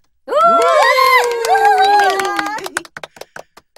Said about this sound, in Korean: 자, 오늘 우리 주일 학교에 새로운 친구가 왔는데요. 멀리서 이사를 왔다고 하네요. 자, 모두 박수로 반갑게 맞아주세요.